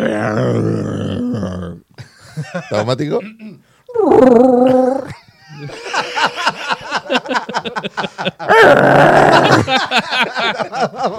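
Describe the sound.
A person imitates Chewbacca's roar: two loud, gravelly, wavering howls separated by bursts of excited talking and laughter-like vocal sounds, the second roar longer and rougher than the first.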